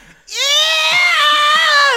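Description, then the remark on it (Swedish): A voice imitates the prolonged, piercing scream of pain of a young woman training legs who was thought to have broken both legs, loud, holding a strained high pitch for nearly two seconds without a break. “För helvete vad hon skrek.”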